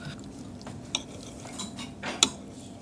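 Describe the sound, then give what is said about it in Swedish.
A knife and cutlery are handled on a plate as someone moves a glass and feels which way the knife is pointing, with soft scraping and two sharp, bright clinks of metal against china standing out from the quiet clatter. No one speaks. “Känna efter vilket håll jag har kniven åt.”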